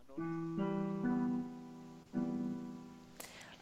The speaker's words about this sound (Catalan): I al canvi el so menor és així.